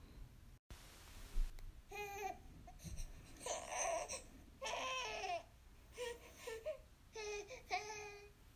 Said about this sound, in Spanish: El próximo es incomodidad y eso suena como je, como que escuchas las H's, como que la, el ja, el je Así se escucha. Y pues aquí les va como suena un bebé llorando que está incómodo.